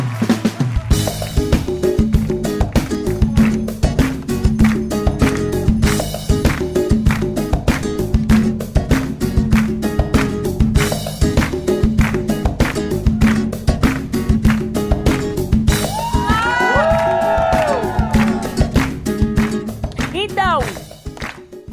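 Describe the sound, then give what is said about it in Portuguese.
A loud, upbeat jingle for the radio show Jojo 96 plays for about twenty seconds over a steady, driving beat, with bright sweeping synth flourishes rising near the end. “Mas eu queria saber se você topa participar da vinheta do Jojo 96.”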